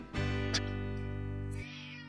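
animal, cat meowing

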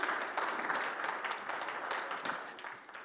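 crowd, audience clapping

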